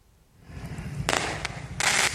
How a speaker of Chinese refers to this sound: 烟火不停灿烂，民众放甲真欢喜。